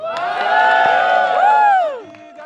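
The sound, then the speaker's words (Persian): An excited crowd of participants in Berlin, waiting to go on stage, cheers loudly, many voices shouting and whooping together in a sustained roar, with one rising and falling cry standing out before the noise drops away. “در بین اشتراک کننده های عزیز میبینیم که چی شور و قوقای به وجود آوردن اینا منتظر هستن که برن سر استیج آیا آماده هستین؟”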